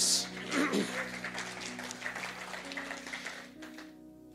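Steady audience applause, a dense rush of many hands clapping, with a few louder bursts early on, over a sustained soft musical drone, then tapering off near the end.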